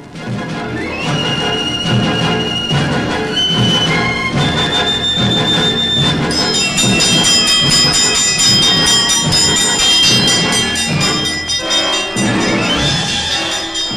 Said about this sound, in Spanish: Lo primero es llamar a los bomberos sonando el tuque riel.